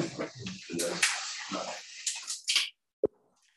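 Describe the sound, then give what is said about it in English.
Whisky, another pour of the fifteen for everybody, pours and splashes into glasses for a few seconds, a gurgling hiss under faint murmured voices, then stops, followed by a single sharp clink. “uh, would you guys mind um, pouring another fifteen for everybody?”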